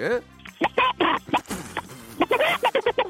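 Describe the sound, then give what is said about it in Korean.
A person imitates a chicken in a voice-impression contest on Park Myung-soo's radio show, with a series of short, clucking vocal bursts in an uneven rhythm, loud, ending with a quick run of rapid clucks. “저 오늘 닭소리하고. 닭소리 갑니다. 닭소리.”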